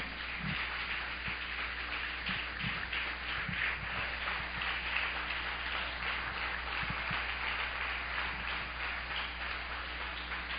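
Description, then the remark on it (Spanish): A church audience applauds to God steadily for about ten seconds, a dense, even wash of many hands clapping with no voices standing out, plus a few soft low thumps beneath. “Es un aplauso a Dios y dígale, diablo, fuera de mí, fuera de mí, fuera de mí en el nombre de Jesús.”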